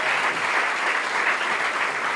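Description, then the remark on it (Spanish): An audience breaks into applause, a dense, steady wash of many hands clapping at once, holding at an even, fairly loud level for about two seconds with no voices over it. “Un aplauso, por favor.”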